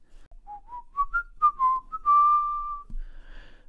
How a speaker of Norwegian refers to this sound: Plutselig glei plystringa over i og sang.